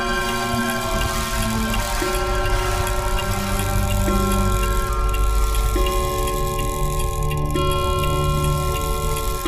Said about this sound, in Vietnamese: Thứ duy nhất còn hoạt động trong căn phòng này Chính là chiếc đồng hồ treo tường Tiếng kim dây chuyển động Khiến tôi đưa mắt lên nhìn Vừa chuẩn đúng 12 giờ đêm